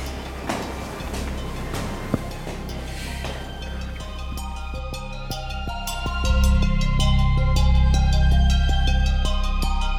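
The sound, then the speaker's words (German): A moped engine drones and rattles as it rides through an echoing bunker tunnel, its low rumble swelling louder and fuller partway through as it revs. No one speaks. “Sei mit ihm dabei, wie er zum Beispiel mit dem Töff durch den Bunker düst.”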